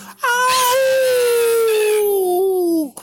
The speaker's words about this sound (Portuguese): Quando o lobo chegou embaixo, ouviu-se um grito.